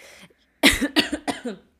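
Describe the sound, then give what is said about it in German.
A loud cough burst into a microphone, a few harsh rapid coughs in quick succession, with a brief throat-clearing rasp before them. “Entschuldigung, dass man äh, Mikro gehustet.”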